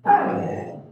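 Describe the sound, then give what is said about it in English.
A pet husky lets out one loud, drawn-out bark, its rough, throaty tone trailing off over about a second, with no one talking. “that's my dog, by the way.”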